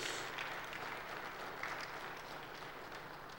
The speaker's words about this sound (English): Folks, we owe her some applause.